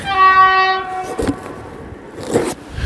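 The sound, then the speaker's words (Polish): A train horn blares loudly for just under a second, a rich harmonic tone, then gives way to the rumbling, clattering noise of the train pulling in as it arrives. “I teraz niestety muszę przerwać, bo pociąg podjeżdża, także dokończymy to nagrywanie w domu.”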